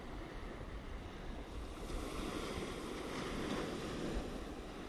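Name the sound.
ocean waves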